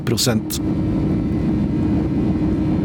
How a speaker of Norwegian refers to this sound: Klokken er 03.42 norsk tid onsdag 8. januar. I flyet UR-PSR spoler de to CFM 567B-motorene opp til 100